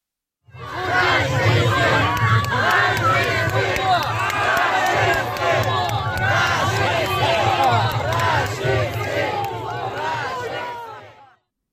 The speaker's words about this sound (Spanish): Entre tanto, en Varsovia, un grupo de manifestantes le echaban pintura roja al embajador de Putin, Sergei Andreev, mientras le gritaban fascista y asesino.